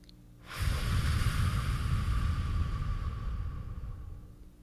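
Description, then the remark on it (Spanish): A single long, deep breath drawn slowly and steadily for several seconds by a person sitting upright during a guided meditation, with an airy rushing texture that gradually fades. No voices. “Y ahora respira tranquilo.”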